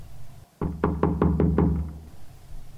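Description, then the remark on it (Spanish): Six quick knocks rap on a bedroom door at night in a steady, even rhythm, solid, with a faint low hum behind them and no voices. “Entonces alguien tocó mi puerta.”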